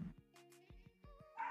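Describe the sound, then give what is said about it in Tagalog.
A dog barks and yips repeatedly in the background of an online class call, in quick, uneven bursts, sounding muffled, with a higher-pitched whining yelp at the end and no talking. “Ayan, nag-mute ako kasi sorry kung maririnig yung aso sa background.”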